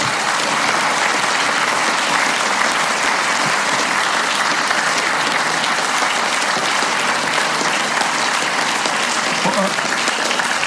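Steady, dense applause from an audience fills the whole stretch, a continuous wash of many hands clapping at an even loudness without pauses or a clear rhythm.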